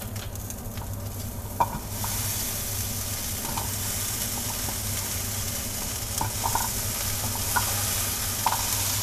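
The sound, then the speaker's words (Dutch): A knife slowly cutting through something soft, a steady, wet, hissing rasp that swells after a quiet start, with a few faint clicks and a low hum underneath. “Hou je mond, ga snijden.”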